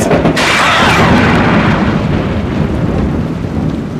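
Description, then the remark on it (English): A loud thunderclap from a lightning strike in the rain cracks at the start and then rolls into a long, heavy rumble that fills the whole clip without fading much. No voices. “The lightning will be striking any moment now.”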